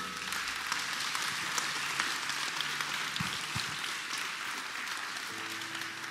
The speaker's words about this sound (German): Mal einen fetten Applaus, lass uns feiern.